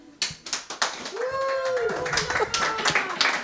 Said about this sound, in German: Und jetzt erstmal einen kleinen Applaus für meinen lieben Gast